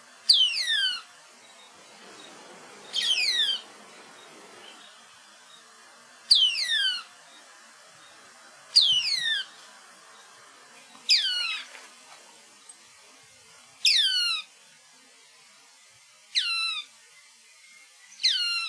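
An Espinhaço cinclodes (Cinclodes espinhacensis) calls repeatedly, giving eight sharp, descending, slightly harsh notes spaced about two to three seconds apart, clear, with no voices and only faint background noise.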